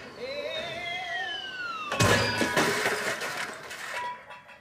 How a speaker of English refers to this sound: And then here's the air conditioner unit uh, in its comic form, uh, complete with a slide whistle.